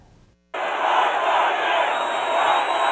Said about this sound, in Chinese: 美国总统川普一登台，全场支持者爆出热烈掌声和欢呼。这是川普在美国大选后一个月来首度举办大型造势活动，支持者回响热烈，气氛嗨翻天。